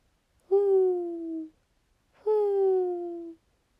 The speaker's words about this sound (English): An owl hooted outside.